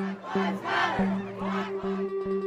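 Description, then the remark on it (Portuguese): A large protest crowd chants a slogan in unison, voices rising and falling in a steady rhythmic pattern, with sharp percussive beats, like drums, punctuating the chant at regular intervals. “O fato de que você vai escutar agora Vidas Negras Importam nos Estados Unidos,”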